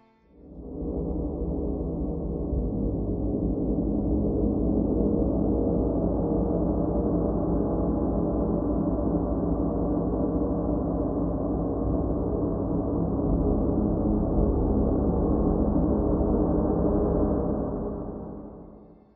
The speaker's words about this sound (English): Lastly, this is the gong.